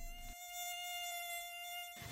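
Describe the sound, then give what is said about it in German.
A thin, high-pitched mosquito whine hovers steadily for about two seconds, fairly clear, with no voices and only a faint low rumble around it. “Immer wenn es warm ist, kommen die Mücken in Scharen.”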